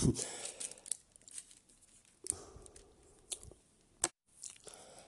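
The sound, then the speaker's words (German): A paper page is turned, with a quick run of crisp rustles and crinkles, a louder flap near the end, then a soft final shuffle. “ich muss umblättern.”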